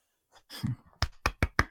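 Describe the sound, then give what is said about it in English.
A few small, polite golf claps: four crisp hand claps in a quick, even rhythm, preceded by a soft breathy exhale. Moderately quiet, with no talking over them. “So small golf nice. claps all around.”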